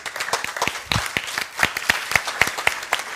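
Audience applause as a new Bible-study student is introduced: many hands clapping at once in a dense, crackling burst of sharp claps, steady and moderately loud throughout, with no voices standing out.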